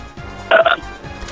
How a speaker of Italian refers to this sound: Anche tu con questo ruttino, niente male.